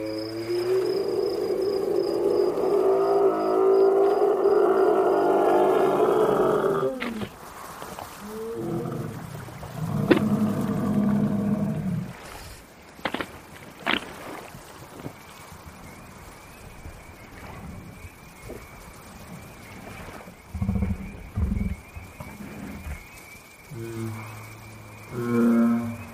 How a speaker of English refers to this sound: let's all say goodnight to the Dewey Lake Monster. It's the sounds of Dewey Lake.